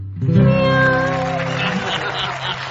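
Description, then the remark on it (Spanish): A person voices a drawn-out, wavering "meow" imitating a cat, loud, its pitch sliding and bending over about two seconds before trailing into breathy noise. “Ay, miau.”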